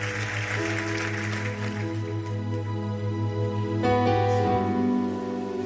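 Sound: audience applauding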